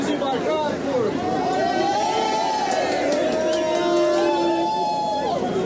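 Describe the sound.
A dense crowd of Bolsonaro supporters, some with horns, cheers and chants slogans together at Paulista subway station, voices rising and sliding in unison, with sustained whoops and a steady roar of many people in the reverberant station.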